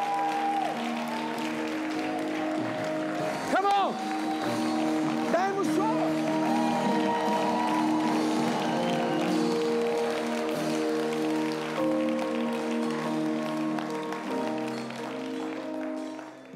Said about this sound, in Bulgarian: О, ако вярваш, дай му едно мощно дарение на ръкопляскане. Хайде!